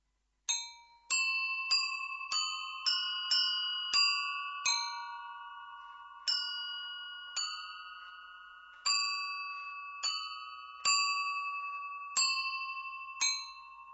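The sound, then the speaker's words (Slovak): A small bell rings clearly, struck about a dozen times at an uneven pace, each bright tone lingering and overlapping the next, with no voices. “Čo vám napadne ako prvé, keď sa povie zvonček?”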